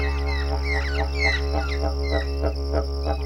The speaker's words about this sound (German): Was du hier hörst, ist der Klang eines typisch australischen Instrumentes, des Didgeridoos.